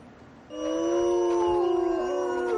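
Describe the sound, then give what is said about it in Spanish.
A gray wolf in California howls in a long, steady, sustained tone with layered harmonics, rising in at half a second and holding clearly to the end, with no talking. “es el aullido y el rostro de uno de los principales depredadores de California.”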